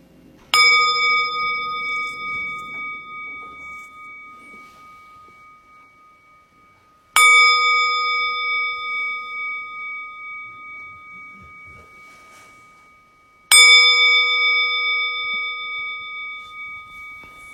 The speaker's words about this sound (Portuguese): Então, eu vou convidar o sino a soar e a gente pode ir começando.